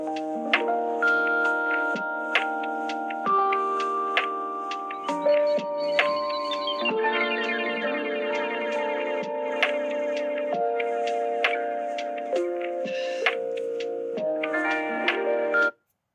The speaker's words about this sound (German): Das nennt sich Lo-Fi-Hip-Hop oder Low-Fidelity-Hip-Hop. Das wird gern als Lernmusik bezeichnet.